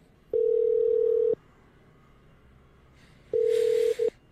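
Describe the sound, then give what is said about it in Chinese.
A telephone tone as the first phone call of a Saturday night is placed: a steady, mid-pitched electronic beep lasts about a second, pauses in silence, then sounds again with a brief break near its end, with no talking. “我要先打第一通电话了，不要浪费时间。”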